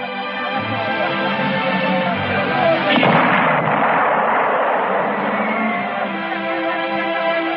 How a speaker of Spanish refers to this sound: Ha sido un cañonazo. O el corazón que me Es el nuevo cañón 77. Debe de estar a unos 50 kilómetros.